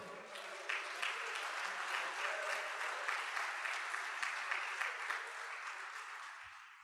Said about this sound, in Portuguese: Você pode dar um glória a Deus e aplaudir o Senhor nessa noite?